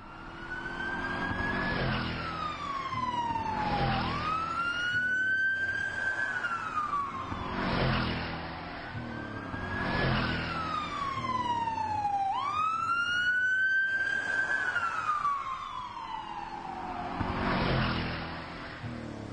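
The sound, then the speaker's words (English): A loud wailing siren rises and falls in long sweeps over steady highway traffic rumble, staying prominent throughout as it passes by; live holiday-weekend traffic on the Trans Canada Highway at 9:13 p.m., June 27, 2014. “Let's see if we can figure out, uh, how crazy the traffic is out there at the moment. So this is live on the Trans Canada Highway, 913 p.m., June 27th, 2014.”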